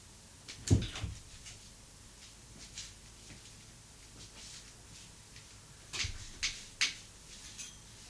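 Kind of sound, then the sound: household object, door opening and closing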